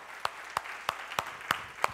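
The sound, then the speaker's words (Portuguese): A church audience clapping in time in praise of God during a worship service, six sharp, evenly spaced claps about a third of a second apart over a steady wash of crowd noise, with no clear voices. “Aplauda Ele, aleluia.”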